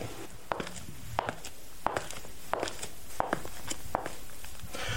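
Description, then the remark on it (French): Foley footsteps: sharp, clicking steps made with men's shoes that have a very high-pitched sound, simulating women's high heels on a hard floor; about seven evenly paced steps at a steady rhythm, fairly quiet over a faint background hum. “Je peux mettre aussi des chaussures de femme, qui ne sont pas forcément des chaussures à talons de femme, mais bien des chaussures d'homme, mais qui ont une sonorité très aiguë et qui vont simuler des talons.”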